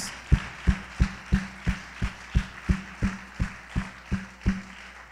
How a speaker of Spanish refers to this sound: Los que crean que Dios les ha escuchado, denle un gran aplauso a Dios, por favor. Denle un gran aplauso a Dios.